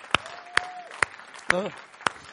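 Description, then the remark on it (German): An audience claps for Jesus in slow unison, five sharp, evenly spaced claps about half a second apart, with a brief voice calling out between them. “Klatsch mal für Jesus.”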